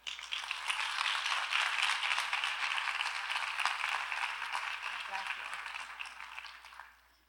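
A crowd claps steadily in a dense, crackling wash of applause that holds for about six seconds before fading out quickly at the end.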